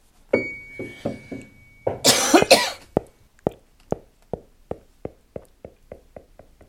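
A short chime written by a composer, resembling a tram bell: a few struck, bell-like tones, a bright noisy flourish, then a steady run of evenly spaced pings that gradually fade away. No voices.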